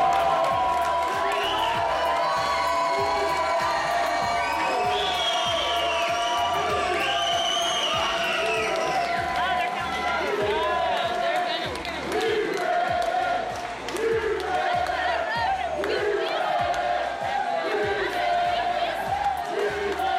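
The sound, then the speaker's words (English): A packed sports bar roars with a crowd cheering and shouting during a playoff game, dense overlapping voices and whoops sustained at a steady loud level, with rhythmic thumping underneath throughout. “And as a matter of fact, man, uh, I got some sound clips from the bar that I was at, man, the sports bar.”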